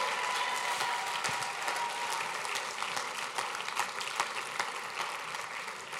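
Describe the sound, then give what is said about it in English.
A church audience applauds new members as they go back to their seats, a dense, even wash of many hands clapping with scattered sharper individual claps standing out, sustained at a fairly constant level throughout without any talking. “Give your new brothers and sisters a great hand clap as they go back to their seats.”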